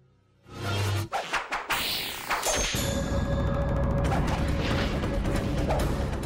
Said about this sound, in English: Yeah, that's some precise sword swinging right there.